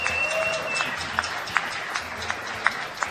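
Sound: audience applause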